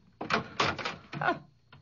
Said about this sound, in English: Big deal. You opened the door.